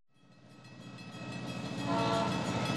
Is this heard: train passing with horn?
yes